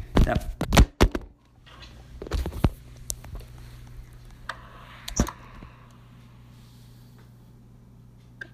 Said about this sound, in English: I'm, I'm going to take the phone case off. You think it's the phone? You think it's the phone case?